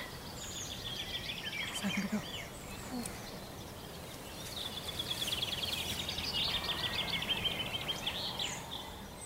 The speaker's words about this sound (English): They returned to Ireland, oh gosh, maybe 20 years ago, I think, 15, 20 years ago. The great spotted woodpecker. They started off in Tomnafinnoge Wood, which is literally just a couple of miles that way there.